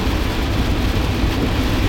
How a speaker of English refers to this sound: dude you guys hear this rain this is ridiculous this is ridiculous everything is just flooded right now literally everything is flooded all this snow's melting and the rain is just hammering